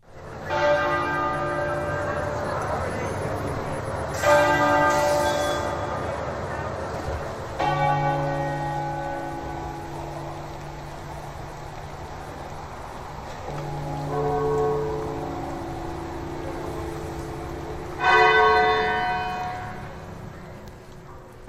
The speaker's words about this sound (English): I did mention at the start of the hour that bells rang out across the country. Here they are from Westminster Abbey.